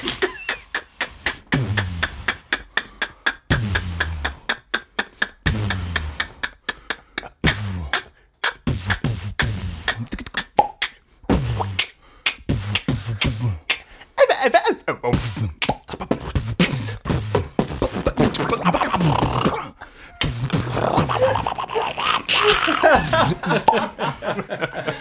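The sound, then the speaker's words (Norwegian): Two people perform a beatbox duet, trading loud, rhythmic mouth-made kicks, snares and clicks in a steady groove that grows busier and denser toward the end, and then both begin to whistle. “beatbox-duett, og så begynner begge å plystre.”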